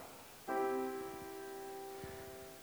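A single major chord of three tones, a major third with a minor third stacked on top, is struck once and left to ring, its notes sustaining steadily and fading slowly, with a few soft low knocks near the end.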